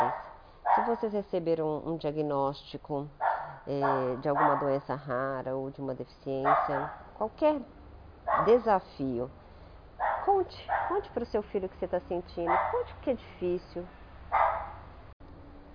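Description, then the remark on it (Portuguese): A dog barks intermittently in the background while a person speaks steadily over it, the barking sitting behind the voice at moderate loudness. “Vocês me desculpem o cachorro latino, mas essa é a vida.”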